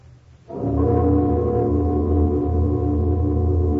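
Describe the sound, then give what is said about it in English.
A great cast bell of gold, brass, silver and iron, newly hung, is struck once, and its deep, loud tone swells and hangs in a steady, humming resonance with layered overtones that barely fade. “Let the bell be struck.”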